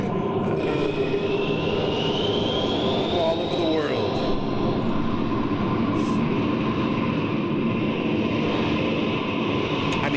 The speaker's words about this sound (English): That's a long that's a lot of uh, long stock footage, man, of the plane landing.